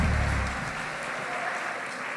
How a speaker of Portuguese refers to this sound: Podem voltar aos seus lugares. A partir de aplauda o Senhor enquanto eles voltam. Aplauda o Senhor.